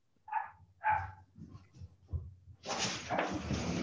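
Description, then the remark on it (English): A puppy that has been put outside gives two quick, high-pitched yaps, then a few soft thumps before a loud, steady rushing noise fills the rest, like a door sliding open. “I'm waiting for my puppy to come in and say. She never barks that week.”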